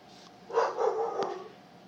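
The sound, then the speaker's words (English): A neighbor's dog, let outside, barks a few times in quick succession, muffled, with no one talking over it. “So my neighbor let their dog out and their dog's barking.”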